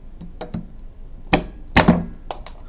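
A glass is struck against a bottle cap to open the bottle, the cap loosening: a couple of light taps, then several hard, sharp knocks with a bright, clinking ring, irregularly spaced, with no voices.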